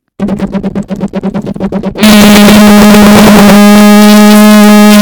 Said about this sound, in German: Mein Mikro ist gerade umgefallen, hat zu doll vibriert.